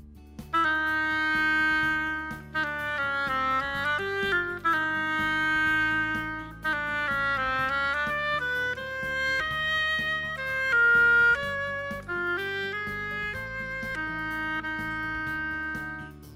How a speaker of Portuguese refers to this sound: Aqui está o pato tocado pelo oboé.